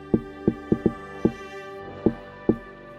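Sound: rhythmic knocking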